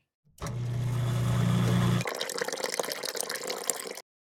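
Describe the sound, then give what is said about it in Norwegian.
Coffee is poured steadily into a cup for about four seconds, with a resonant tone that rises as it fills, then a looser splashing trickle before it stops. No one speaks. “Jeg skal bare finne litt kaffe til oss, jeg”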